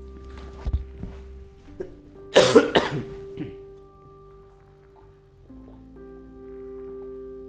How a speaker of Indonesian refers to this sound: Mohon maaf ya, saya nge-record ini dalam kondisi masih batuk. batuk kering jadi gatal banget.